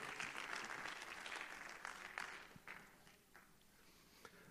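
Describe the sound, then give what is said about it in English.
An audience claps their hands to the Lord as they are being seated, a dense, steady wash of applause that gradually thins out and fades, with a few scattered claps and shuffling lingering at the end. “Why don't you clap your hands to the Lord one more time as you're being seated?”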